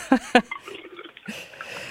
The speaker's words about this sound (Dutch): sorry. Ik nou, neem ook een slokje water. heb je ook een glas, eh, een glas met een vleermuis erop of niet?